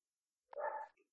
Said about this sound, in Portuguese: tive que tirar um som porque tenho aqui a, eh, a Maia a ladrar, não sei se vocês conseguem ouvir